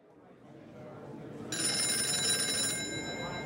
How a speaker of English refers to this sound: It's 1957 in Harman's Cafe in Salt Lake City. … answers his office phone.